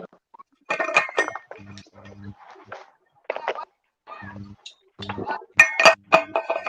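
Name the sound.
glasses clinking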